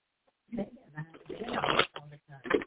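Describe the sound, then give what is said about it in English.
Crisp shuffling of a deck of oracle cards: several quick papery bursts of riffling and sliding over about two seconds, with brief pauses between handfuls. “Okay, we have two cards that threw themselves out while shuffling.”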